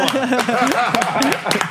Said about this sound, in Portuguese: Palmas pra Igor Julião.